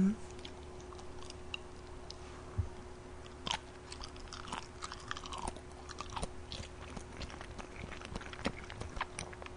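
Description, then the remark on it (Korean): Wet, sticky chewing on springy boiled egg white, with soft squelches and little clicks repeating irregularly at a low volume and no talking. “진짜 흰차가 되게 탱탱해요.”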